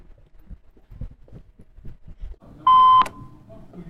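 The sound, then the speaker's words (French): An intercom call tone at a building entrance beeps once, a clear steady electronic bleep lasting about a third of a second, rising above low background noise and faint footstep-like thumps. “Appel en cours.”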